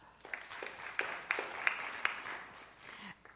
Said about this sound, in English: want you to clap if you would classify yourself as a rule breaker. Will you clap?